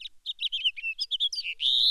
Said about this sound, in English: Well, let me try the house finch. Yeah, try maybe the house finch because that's a bird everybody should know.